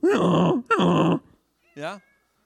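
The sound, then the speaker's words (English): A person imitates a donkey's bray with two loud, drawn-out hee-haw calls, then a shorter, quieter voiced sound. “What sound does a donkey make?”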